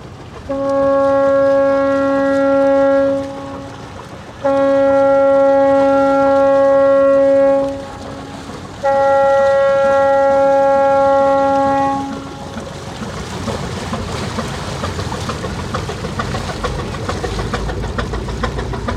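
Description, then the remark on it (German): A ship's horn sounds the start signal of the Expedition Ocean Change 2022: three long, loud blasts with a deep steady tone and rich harmonics, separated by brief pauses, before giving way to a rumbling engine and wind noise. “Und wir beenden diesen letzten Podcast von Bord mit dem Startsignal der Expedition Ocean Change 2022.”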